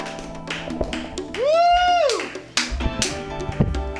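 Comedy show crowd applauding as the first comic is brought to the stage, with steady clapping throughout and a loud rising-then-falling whistle or whoop cheering over it midway, plus a few scattered shouts.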